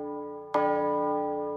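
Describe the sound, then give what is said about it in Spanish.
A bell rings with a sustained, resonant tone, then is struck again partway through, and the bright new peal slowly fades as it hums on, with no voices. “Regresó a su casa como todos los días, con la diferencia que el sonido de la campana acompañó sus pensamientos todo el camino.”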